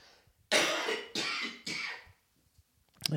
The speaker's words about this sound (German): Man kann ja, Entschuldigung, ich muss nochmal husten.